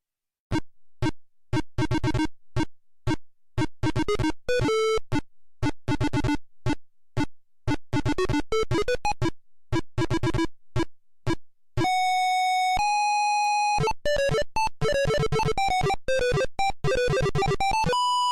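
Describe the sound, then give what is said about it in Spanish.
Single-voice PC speaker beeper game music: rapid staccato square-wave notes in a bouncy rhythm, then a sustained buzzing tone and a fast flurry of chirpy arpeggios, loud and with no talking. “Conseguir auténticas obras de arte con solo el Viper del PC.”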